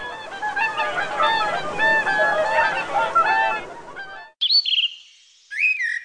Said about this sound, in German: Den Singschwänen scheint es dabei an Unterhaltung jedoch nicht zu mangeln.